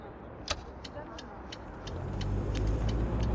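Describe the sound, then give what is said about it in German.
A car engine idles low, then swells into a louder, steady rumble as the car carrying Buterin pulls away, with a few sharp clicks and ticks scattered over the first half. “Als der Wagen losfährt, grinst der junge Programmierer Buterin an.”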